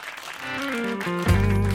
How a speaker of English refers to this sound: We got a standing ovation here. Thanks, everybody.